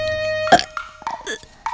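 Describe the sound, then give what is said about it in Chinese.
A loud, abrupt burp after a sip of soda bursts out, followed by a few shorter, rumbling gurgles, over a faint, steady musical tone in the background. “空谷丽手上的零食没有断过，喝了一口汽水后，他打了一个响嗝。”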